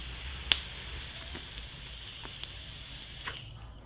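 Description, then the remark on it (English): A long, steady lung inhale on a Me Pod pod vape: a soft, airy hiss drawn for about three seconds, with a sharp click early on and a few faint crackles, then stopping abruptly. “In fact, sometimes I lung inhale this Me Pod just because you can and just because it's not bad.”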